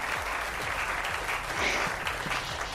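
Steady applause from a crowd, a dense continuous patter of many hands clapping at a fairly even loudness, with no voices standing out.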